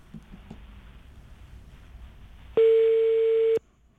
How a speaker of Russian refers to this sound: Гудки хорошие. Хорошие, каче- качественные. Не заграничные.